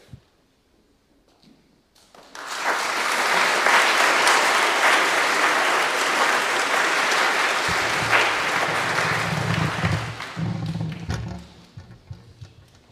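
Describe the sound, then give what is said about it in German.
An audience breaks into sustained applause, a dense wash of clapping that rises quickly, holds steady for several seconds, then tapers off as a voice begins speaking underneath near the end. “Es ist wirklich einfach eine so eine lässige Gruppe und äh, ich würde einfach noch einen Applaus.”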